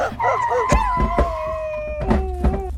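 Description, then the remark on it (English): Several dogs howl together in long, sustained rising and falling tones, punctuated by a few sharp barks, loud against a low rumbling background. “dead, dogs. Please be dead.”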